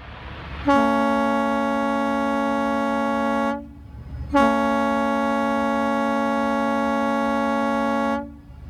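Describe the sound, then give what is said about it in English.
A Disney ferry boat carrying guests to and from the Magic Kingdom sounds its whistle as it enters to dock: two long, steady, loud blasts, each lasting about three seconds, with a brief pause between them; the tone is deep and rich over a low rumble. “And that is the incredible boats and the whistle that you hear as they're entering to dock to either pick you up or take you, uh, pick you up or drop you off from the Magic Kingdom.”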